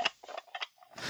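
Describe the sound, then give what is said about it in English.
A plastic action figure's head mechanism clicks and ratchets as the tail is moved, in a few short, scratchy bursts with brief pauses between movements and no voices. “You can make the head move by moving the tail, right?”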